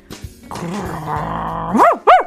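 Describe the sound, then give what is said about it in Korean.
A voice imitates an angry dog, the family's youngest pet dog Richie getting angry when teased by the older sister: a low, sustained growl rumbles for about a second, then two sharp, rising barks close together, loud. “우리 집 막내, 우리 댕댕이 리치야. 리치는 큰 누나인 내가 장난치면”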